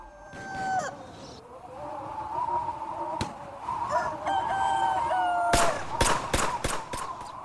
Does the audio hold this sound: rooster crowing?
yes